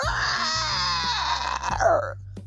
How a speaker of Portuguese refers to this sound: De madrugada, acordou assustado com um grito estarrecedor.